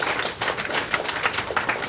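Audience applause at a talk in Taiwan, thanking an adviser for his introduction, fills the whole moment, a dense, steady crackle of many hands clapping at once with no voices over it and no break in the sound.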